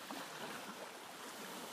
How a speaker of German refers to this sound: Und mit den Wellen, dem Wind und deinem Atem ganz natürlich fließen.